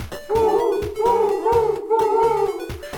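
An owl-like hoot repeats four times in a steady rhythm, each call a drawn-out, mellow tone, sounding loudly over a regular thumping beat.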